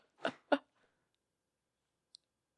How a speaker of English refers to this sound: was just the ice machine. Oh, that's scary. Yeah, it was loud.